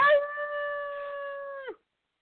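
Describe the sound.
A man imitates a howl with his voice, a single sustained, steady note held for nearly two seconds before breaking off abruptly, fairly loud.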